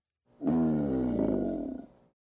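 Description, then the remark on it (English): A male alligator gives a single deep, rumbling bellow that rises sharply and holds for about a second and a half, a loud, rough, throaty roar that fades out gradually, heard alone with no talking. “Male alligators bellow to announce their territory.”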